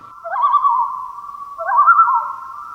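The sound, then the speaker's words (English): Loon calls ring out over a calm lake at night with no breeze: a sustained mid-pitched wail broken by two rising, wavering phrases, fairly loud and clear with no voices. “And then you have to hope that the loons are talkative that night.”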